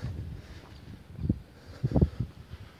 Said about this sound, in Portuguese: sentindo vento. Ah, delícia, hein?